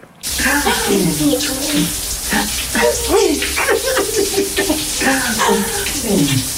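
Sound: shower water running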